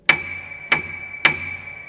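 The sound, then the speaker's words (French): A piano note struck three times with a soft felt hammer, each strike ringing on at the same pitch and overlapping the next, played clear with no voices. “Voilà, deux marteaux qui suivent, le feutré”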